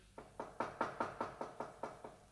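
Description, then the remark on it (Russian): A steady series of about nine knocks on a door, evenly spaced and moderately loud, rapping out a quick rhythm with no voices. “В самом деле стучат.”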